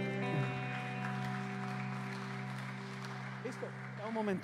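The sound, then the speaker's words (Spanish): A crowd claps steadily, giving applause to the Lord, over sustained keyboard chords, the applause a dense wash throughout, with a voice briefly rising over it near the end. “Pueden tomar su asiento y démosle un aplauso al Señor en esta.”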